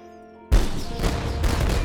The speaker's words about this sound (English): We will show him our power. Ready a fusillade and the cannons. Fire!